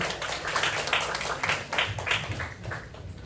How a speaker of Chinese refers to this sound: 请延续掌声，感谢我们优秀的讲师，我们的长庚顾问